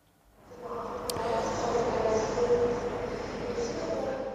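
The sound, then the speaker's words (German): Busy train station ambience in the early morning fades in and holds steady: a broad rumble and hiss with a faint murmur of crowd voices, a brief high squeal near the start, moderately loud throughout. “Am Bahnhof ging es am frühen Morgen des nächsten Tages hektisch zu.”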